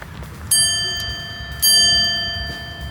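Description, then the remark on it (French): A small doorbell rings twice, two bright metallic strikes about a second apart, each leaving a clear ringing tone that slowly fades over a low background hum. “Ah, une petite sonnette.”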